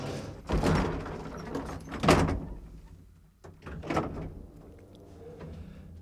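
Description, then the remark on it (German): An elevator door in a 45-metre Berlin high-rise slides along its track and shuts with a solid thunk, followed by a second rumbling slide and soft mechanical knocks, with no one speaking. The elevator travels eight floors to the roof garden. “Mit dem Aufzug sind es acht Stockwerke bis zum Dachgarten, eine weitere Attraktion des Hauses.”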